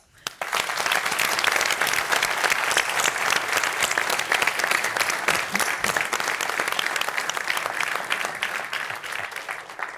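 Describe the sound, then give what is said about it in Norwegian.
Sustained audience applause, a dense wash of many hands clapping fairly loudly for about ten seconds, starting abruptly and holding steady before easing slightly at the end. “En stor applaus.”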